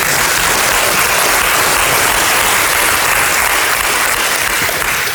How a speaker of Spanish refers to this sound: Somebody ought to clap for that. Alguien debería aplaudir por eso.